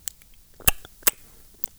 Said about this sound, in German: Kennen Sie dieses Geräusch? Dieses Geräusch wenn ihnen wer ein Puzzle gibt.